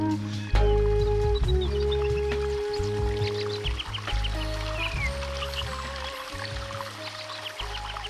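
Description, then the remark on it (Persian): Birds chirp and twitter repeatedly over the steady rush of a flowing river, with sustained tones humming underneath throughout. “صدای پرنده ها رودخونه خیلی زیباست”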